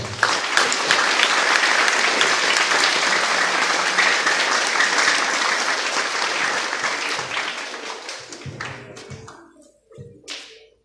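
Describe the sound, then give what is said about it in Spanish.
An audience applauds in recognition of a student who has been at the institution four years, a dense, steady wash of clapping that holds for about eight seconds, then thins out into a few scattered, separate claps before stopping. “A él el reconocimiento con un fuerte aplauso, por favor.”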